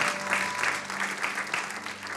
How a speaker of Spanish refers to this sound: ¿Cuántos dan gloria a Dios? Denle un aplauso fuerte al Señor porque Él es bueno.